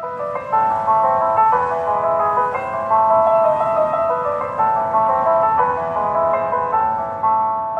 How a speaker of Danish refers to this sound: Han påstår, at gasvognenes øh, elektroniske fyrelise er den næst mest afspillede lyd i Jordan, kun overgået af, øh, når der bliver kaldt ind til bøn fra minareterne.